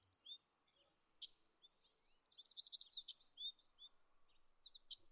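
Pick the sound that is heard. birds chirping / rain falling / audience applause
birds chirping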